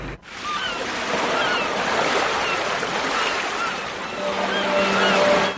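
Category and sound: nature, sea waves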